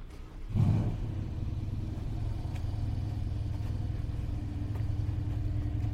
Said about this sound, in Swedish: Nu är det en fräsig bil. Ett dollargrin som min pappa skulle säga. Som startar här bredvid mig.